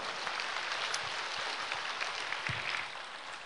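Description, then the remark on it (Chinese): Sustained applause from an audience at a meeting with Lu Junhong, thanking him for his Buddhist teaching talk: a dense, even crackle of many hands clapping at steady loudness before easing slightly near the end. No one speaks over it. “让我们再次以热烈的掌声，感恩卢军宏台长为我们带来的精彩开示。”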